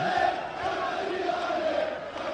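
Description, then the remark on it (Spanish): A large crowd of European football fans chants together in a steady, droning mass of voices. The sound stays loud and continuous throughout, with no pauses or individual voices standing out. “Tienen fomes gritos los europeos.”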